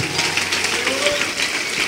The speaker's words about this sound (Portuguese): E vamos aplaudir o Senhor por cada vida que está chegando.